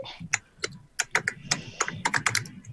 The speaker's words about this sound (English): I hope that noise is a keyboard